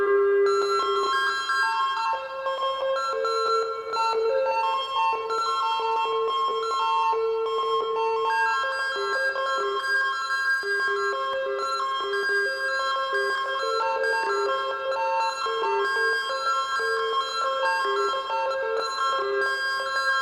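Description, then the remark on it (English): A bell-like sound from an ARP 2600M synthesizer, run through a Tensor pedal, plays sustained, shimmering tones with stepping pitch changes and warped, glitchy pedal effects, steady and fairly loud throughout with no talking. “I'm going to use an ARP 2600M now. And it's set to almost like a bell like sound, and now it's running through the tensor and creating some pretty cool effects.”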